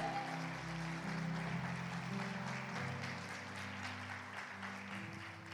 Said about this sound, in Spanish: Hay buenas noticias, aplaude al Señor.